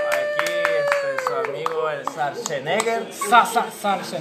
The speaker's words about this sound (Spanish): Pues, aplausos. Aplausos.